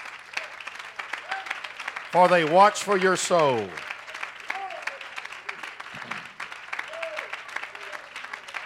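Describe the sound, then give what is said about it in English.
A church audience applauds their pastor and his wife with dense, steady hand claps throughout, moderately loud, while a man speaks over it and briefly lets out a loud, drawn-out vocal cry. “Why don't you give your pastor and his wife a real good hand clap?”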